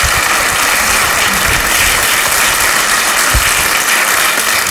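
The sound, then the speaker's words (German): A crowd applauds steadily, a dense, continuous wash of many hands clapping at once, fairly loud, with no voices standing out over the clapping. “Dankeschön, einen großen Applaus.”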